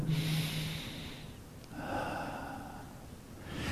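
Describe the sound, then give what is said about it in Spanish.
A slow, deep breath drawn in through the nose, a brief pause, then a long airy exhale, with the start of another inhale at the end. Fairly loud, with no talking. “Una respiración profunda y suave disminuye la ansiedad y disminuye el estrés.”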